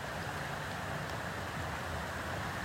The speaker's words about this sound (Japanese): 皆さん今日も川の音聞こえますかね